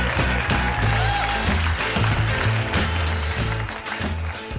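An audience claps steadily over a band playing a lively tune, the dense patter of hands blending with bass notes and keeping an even loudness throughout.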